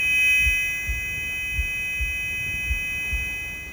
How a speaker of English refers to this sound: Buzzing in my ear.